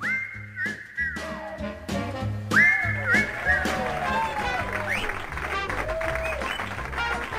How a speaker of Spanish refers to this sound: Muy bien, muchas gracias por los aplausos para el participante número uno.